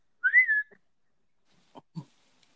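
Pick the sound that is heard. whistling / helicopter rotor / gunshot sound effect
whistling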